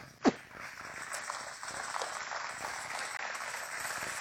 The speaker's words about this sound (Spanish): Amén. Un aplauso.